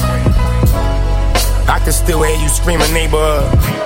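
A hip-hop track plays loud and continuous, with a deep, steady bass line under a rapping male voice and layered backing sounds.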